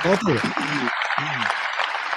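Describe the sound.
An audience claps steadily in a dense, crackling wash of applause that continues the whole time, while voices talk over it in the first part.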